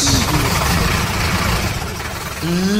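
The engine of a new motorcycle idles with a steady, loud, low rumble throughout, its pitch dipping slightly and then rising briefly near the end as if lightly revved.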